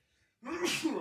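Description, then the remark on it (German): A single loud sneeze in a cold hotel room bursts out after a brief near-silent pause, a sharp breathy explosion with a noisy, hissing tail. “Gesundheit. Ver Verzeihung.”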